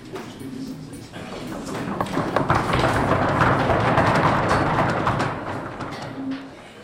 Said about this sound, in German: Die Studierenden klopfen anerkennend auf die Tische. Der Applaus der Akademiker.